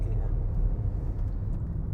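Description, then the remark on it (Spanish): Street traffic rumbles steadily and fairly loudly, a continuous low engine drone that fills the whole stretch, with a faint murmur of voices mixed underneath. “Hay tráfico.”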